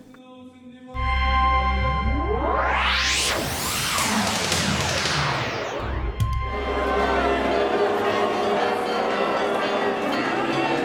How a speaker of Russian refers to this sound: Как торжественно и красиво! Колокола звонят! хор поет